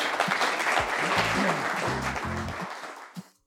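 A crowd at an event applauds a speaker steadily, a dense wash of many hands clapping at once, with a few low voices murmuring beneath before the clapping fades out at the end.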